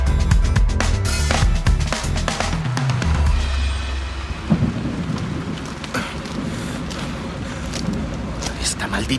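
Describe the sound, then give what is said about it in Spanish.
A thunderstorm in a forest with steady heavy rain hissing throughout and deep rolling thunder rumbling low, loudest in the first few seconds, with faint voices underneath. “Una tormenta así puede ser peligrosa.”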